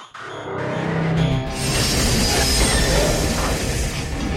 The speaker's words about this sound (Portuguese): trem mal chega na estação local e já é recebido a tiros por vários homens de Zacareca, posicionados em passarelas, terraços de barracos e trincheiras escavadas pelo próprio pessoal do crime.